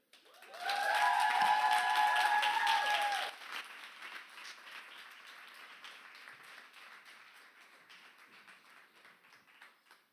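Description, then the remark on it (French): A church crowd bursts into loud applause with shrill whistles and cheers for a few seconds, welcoming people invited onto the stage, then settles into steady, softer clapping that continues to the end. “Alors, fais beaucoup de bruit pour les gens qui vont venir.”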